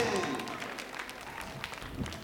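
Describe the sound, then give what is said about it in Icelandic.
An audience applauds for a man in a steady, dense wash of clapping that holds for about two seconds, with a brief vocal whoop or cheer rising over it at the start. “klappið á fyrir þessum manni”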